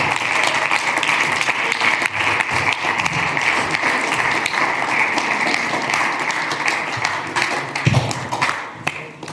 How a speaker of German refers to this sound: Applaus